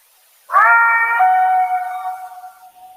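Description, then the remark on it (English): A single long, drawn-out howl recorded in the woods in Colorado, at about 10,000 feet and about 50 miles from the nearest paved road, begins abruptly and holds a steady, slightly falling tone, then slowly fades, heard alone with no voices or other noise around it. “And there seems to be a gap of about six seconds in between the howl here.”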